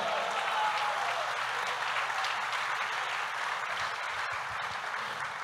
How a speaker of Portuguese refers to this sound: Eu pensei que você ia dar um glória a Deus, e um aplauso a Jesus.